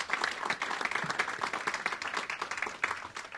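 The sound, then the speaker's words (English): An audience at the National Press Club breaks into a sustained round of applause for a panel of speakers, many hands clapping in a dense, steady wash of crackling claps that holds at an even loudness throughout. “Uh, how about a nice, warm National Press Club round of applause for all of our panelists?”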